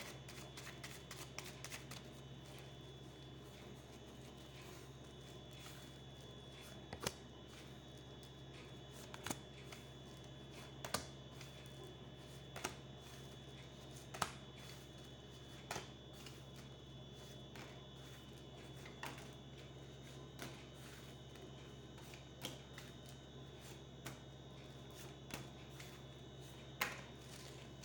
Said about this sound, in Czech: A já už se dívám na vaši fotku, míchám u toho karty a podíváme se teda spolu, jak se bude barvit to období 2022.